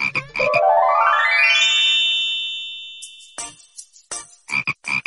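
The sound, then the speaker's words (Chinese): Cartoon-style frog croaking in short raspy bursts, broken by a bright tone that sweeps upward and rings steadily for a moment, then several more quick croaks, opening a question time for children in a story programme. No one speaks. “我来问，你来答，呱呱。”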